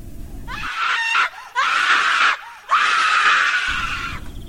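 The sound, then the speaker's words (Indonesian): A woman screams loudly and shrilly in three long, sustained bursts separated by brief gasping pauses, intense, with no speech. “menjerit sekencang-kencangnya.”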